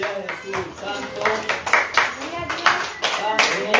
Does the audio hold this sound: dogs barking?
no